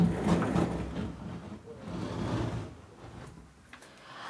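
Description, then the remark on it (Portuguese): A door being opened to let out a cat named Patolina, producing a low, sustained rumbling and scraping sound that lasts a few seconds at a moderate, fairly quiet level, with faint background noise. “Eu vou abrir a porta pra Patolina, tá, gente?”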